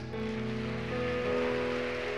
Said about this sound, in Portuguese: Vamos aplaudir a Jesus.